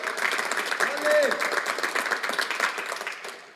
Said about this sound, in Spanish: Vamos, si tú lo crees, dale bien fuerte ese aplauso a Jesús. Vamos, agua viva, yo creo que tú lo puedes hacer mejor.